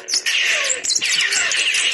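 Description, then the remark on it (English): Dense, continuous sparrow chirping fills the scene as a sparrow is offered birdseed, with busy overlapping high tweets and a brief dip near the start; no one speaks. “I bet you a lot of people would love to see that sparrow.”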